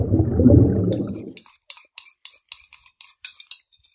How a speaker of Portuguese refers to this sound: Quem tá comendo aí? Eu. Comendo bolo de sorvete da minha mãe. Oh, delícia. Não quer dividir. Eita. Melhor sobremesa do mundo.